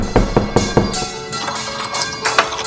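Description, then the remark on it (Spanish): Knocking on the door of a convent: three quick, solid knocks, then a softer knock or two a moment later, over a faint, steady tonal background. “Cuenta la historia que un día llamaron a la puerta de un convento.”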